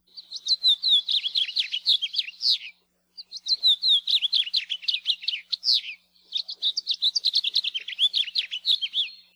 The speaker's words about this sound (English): finch song has been described as a sweet warble and can be heard throughout the year in Hawaii.